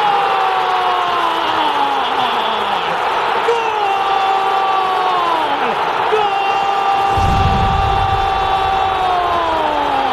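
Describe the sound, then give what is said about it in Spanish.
A huge crowd at Estadio Azteca roars and cheers after Michael Arroyo scores a goal for América, who become champions of Mexican football. The crowd makes a loud, continuous wall of sound, swelling with a deeper rumble near the end while a voice shouts excitedly over the noise. “¡Explota el estadio Azteca!”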